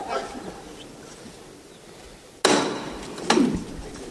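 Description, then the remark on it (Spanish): Two sharp, loud knocks from a metal hammer knocker signal the lifting of a procession float, the second following about a second after the first, each ringing briefly over a low, steady murmur of outdoor crowd noise. “al cielo con fuerza se levanta tocando el martillo”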